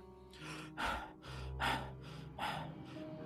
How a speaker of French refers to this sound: Haletante.